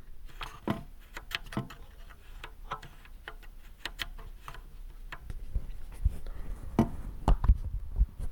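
The three faders of an audio mixer are slid and click into their center detent. A string of sharp, dry clicks comes at uneven intervals over faint handling noise, with a few louder knocks toward the end.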